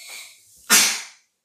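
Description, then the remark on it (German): A single sneeze, fairly loud, with a brief airy intake before a sharp burst that trails off quickly into silence. “Gesundheit.”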